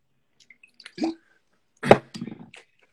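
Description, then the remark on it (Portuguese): Wet splashing as a little water is tossed onto the back of a cement board to test its absorption, two short splashes with a brief pause between, followed by light dripping and small clicks, no voices. “vou jogar um pouquinho de água aqui, só um minutinho.”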